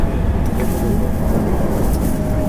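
A steady, loud low rumble of a JR 225 series Special Rapid (Shin-Kaisoku) train running along the tracks from Ashiya to Osaka, with a constant droning hum and faint rattles throughout.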